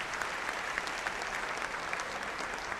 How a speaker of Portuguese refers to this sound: 18 a 35 anos, essa massa de gente aqui, que coisa linda! Vamos dar uma salva de palmas para esses jovens.